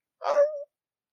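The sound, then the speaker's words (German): A single short, cat-like meowing cry of pain made by a human voice, for a character clutching her side after being struck, rising then trailing into a thin sustained tone, lasting under half a second with silence around it. “Sie fasst sich an die Seite und katzenartiger, miauender Aufschrei.”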